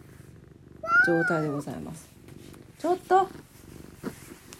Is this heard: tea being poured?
no